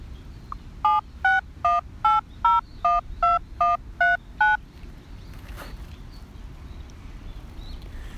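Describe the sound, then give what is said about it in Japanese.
A rapid, evenly spaced run of about ten short electronic data tones that open a web link to the Pixel 2 Launcher Android app when heard, clear and fairly loud over a low background hiss, followed by a few seconds of quiet background noise. “こちらの音を聞かせてもらえれば、リンクが飛びますので、ちょっとそちらの方に移ってみてはいかがでしょうか”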